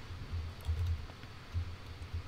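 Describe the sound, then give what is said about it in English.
Soft, irregular tapping on a computer keyboard as someone types search terms such as NIST 800, a few quick clicks with dull low thumps beneath, quiet, with no one speaking. “So some technical recruiters are going to be looking or are going to be typing in what I just typed here, but very rarely are they just going to type in risk management and that's it.”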